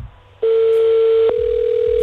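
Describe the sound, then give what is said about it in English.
A steady, loud electronic ringing tone of an outgoing phone call to a friend starts after a brief quiet moment and hums on continuously, with only a tiny hiccup partway through. No one speaks. “it's ringing.”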